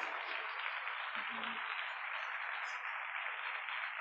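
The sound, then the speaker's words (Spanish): A steady, dense wash of audience applause carries on for several seconds at an even, fairly loud level, with a brief low murmur partway through. “Sí, sí, un súper aplauso.”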